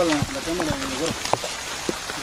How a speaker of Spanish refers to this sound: Verga, está apretando la lluvia, güey. Vamos a caminar, güey, vamos a caminar.